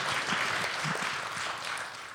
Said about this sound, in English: it's very nice of you all to applaud.